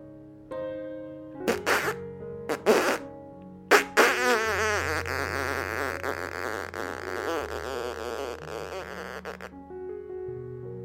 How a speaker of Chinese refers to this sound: 爸爸说：“皮皮，快呀，快，快点放屁！”于是他就很用力的。